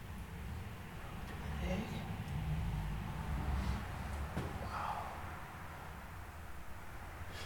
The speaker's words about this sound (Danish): Det er meget rart, at man sådan kan høre biler nede på vejen. Fordi det ja, gør, det, men sådan... årsag føles det sådan lidt, som om man ikke er helt alene i verden, ikke?